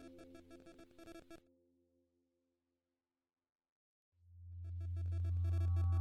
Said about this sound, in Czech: Uslyšíš takový jakoby gong, se to rozlehne a pak neslyšíš nic, a pak je tu ticho a pak znovu uslyšíš takový zvuk, co připíná gong a pak je tu znovu ticho.